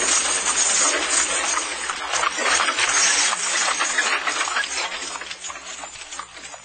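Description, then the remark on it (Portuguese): Horse hooves trot briskly in a dense, clattering rhythm, likely mixed with the rattle of a horse-drawn coach travelling to a farm, staying fairly loud throughout with no voices. “Lázaro fechou a portinhola, montou seu cavalo e. Heia! Heia!”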